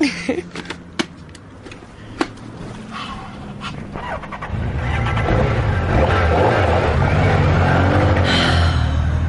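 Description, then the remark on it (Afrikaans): A few sharp knocks and clicks, then a car engine rumbles up and grows louder, its pitch rising as the car revs and drives off, with a steady low roar at the end. “Klap toe daai hoed dat ons kan ry.”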